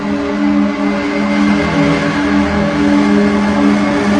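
Engines of a Super Caravelle airliner, TAE charter flight JK297 from Salzburg bound for Tenerife and Las Palmas, roar steadily at high power before takeoff, a loud continuous drone with layered tonal hum and a broad rushing hiss, with no speech.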